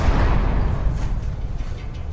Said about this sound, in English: I remember walking under the guard towers and through all the fencing and barbed wire walls to reach the door to the prison, moving from one chamber to the next ended each time with the cold boom of the steel door slamming behind us.